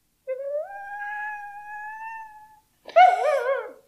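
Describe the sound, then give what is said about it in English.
A synthetic dog-like sound from a translator rendering the phrase "I would really like a bone" into dog language: a long, steady electronic howl lasting about two seconds, a short pause, then a brief warbling yelp. Loud, with no talking. “I would really like a bone translated into dog ears.”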